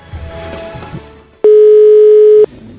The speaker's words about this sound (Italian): vediamo se ci risponde al telefono, lui non sa nulla, non sa che lo stiamo chiamando. Ecco, suona libero, suona libero, eh, buono.